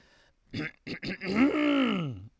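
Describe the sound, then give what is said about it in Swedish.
A voice imitates a loud throat-clearing: a few short rasping bursts, then a long drawn-out gravelly vocal sweep that rises and falls, clear with no talk over it. “Då hörde jag en högljudd harkling.”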